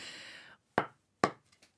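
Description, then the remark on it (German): Two dull knocks of a person's forehead against a wooden board, imitating a woodpecker pecking, about half a second apart, following a short breathy rustle, with a couple of faint taps trailing off afterward. “So, also dann fang doch mal an, mit deinem Stirnschnabel zu klopfen.”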